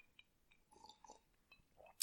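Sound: sipping a drink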